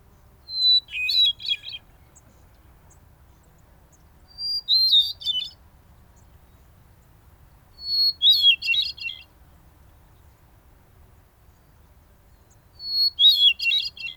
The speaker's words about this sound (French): Mais il y en a encore un qui retentit régulièrement dans les forêts un chant délicieusement étrange, à la fois ordinaire et extraordinaire. Il s'agit du chant de la grive solitaire, un turdidé commun dans cette partie de l'hémisphère nord.